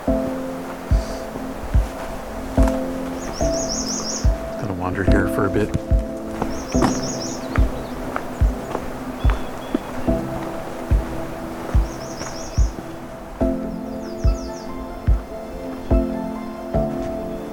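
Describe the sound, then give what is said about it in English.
A flock of female red-winged blackbirds passes along the Crane River, giving short, high chirping calls in scattered bursts over a steady low engine-like hum and regular knocking clicks. “I've got a whole flock of some kind of blackbird going by here.”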